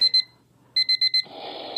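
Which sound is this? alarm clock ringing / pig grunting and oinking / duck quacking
alarm clock ringing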